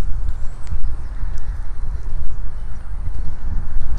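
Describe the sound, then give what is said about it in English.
Steady wind buffeting a microphone outdoors, a continuous low rumble that swells and dips, with faint scuffs suggesting someone walking along. “and now I'm walking. You probably hear some wind.”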